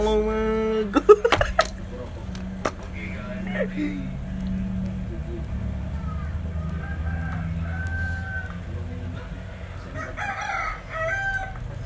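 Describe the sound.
A rooster crows loudly near the start, followed by scattered clucking from chickens over a steady low background, with voices murmuring faintly underneath.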